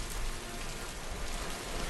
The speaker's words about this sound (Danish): aften, og det regner. Som i virkelig regner.